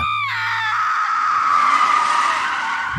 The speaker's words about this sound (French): Et soudain, un cri terrifiant se fait entendre.